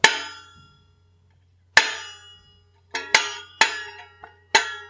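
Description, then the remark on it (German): A rubber band plucked over a metal box, six sharp twanging plucks with a bright, metallic ring that fades after each. The first two are widely spaced, then the rest come in a quicker, uneven run. “Und mit der Metallkiste geht's auch, klingt dann halt metallischer.”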